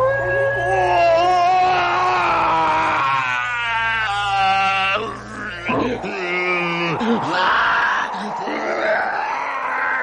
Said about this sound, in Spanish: y cuando la luna llena rasgó la oscuridad de la noche, profirió el más espantoso alarido que se pueda concebir, helando hasta el hielo.